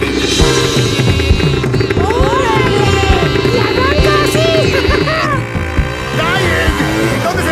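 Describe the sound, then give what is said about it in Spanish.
A modern motorcycle is ridden fast, its engine running steadily with a low, throbbing drone that holds throughout, while voices and other sounds rise and fall over it. “¡Oigan, qué bien maneja la moto, don Ramón!”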